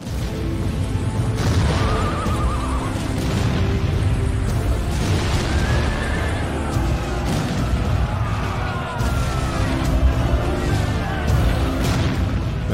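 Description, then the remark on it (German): A dense, continuous battle din from a video game's cinematic intro as Cossack armies clash and horses fall, with booming impacts, crashes and bursts layered over a constant roar, plus shouting voices throughout. “Und hier hören wir mal, wie die Kosakenheere aufeinander losgehen.”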